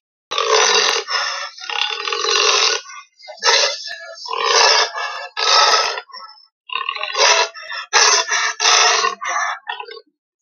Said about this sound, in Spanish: No es un lobo, no es un león, es un jaguar, cositas.